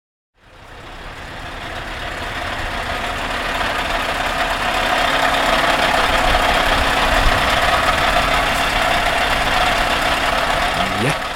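A Scania V8 730 truck engine runs steadily, a deep, loud, continuous rumble with a broad hiss on top that builds in the first seconds and then holds.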